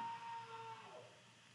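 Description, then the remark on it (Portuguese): A drawn-out scream from a person on the street in a city neighbourhood: a single sustained cry that wavers and slowly falls in pitch over a steady background hum of the street. “Nossa, ouvi um grito aqui, gente, que horror aqui na cidade, aqui no, no meu bairro, que loucura.”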